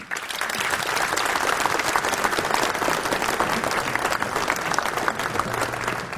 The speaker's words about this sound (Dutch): Dit applaus is voor jullie.